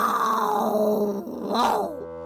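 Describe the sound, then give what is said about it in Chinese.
A human voice imitates a leopard's roar in a children's story as a leopard leaps out of the grass: one loud, drawn-out growling cry that slides downward in pitch, swells again briefly, then trails off after about two seconds. “一声巨吼，一只豹子从草丛中跳了出来。”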